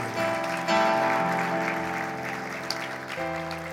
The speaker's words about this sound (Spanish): Se aplaudía, aplaudan.